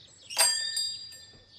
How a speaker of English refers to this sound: it was not long before they were at the front door of Deep Dene House. Watson rang the doorbell.